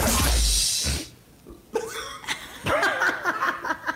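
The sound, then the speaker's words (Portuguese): A loud burp after eating dinner rumbles for about a second, then after a brief pause people laugh and talk. “Desculpa, jantei agora.”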